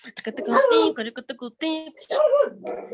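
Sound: french bulldog barking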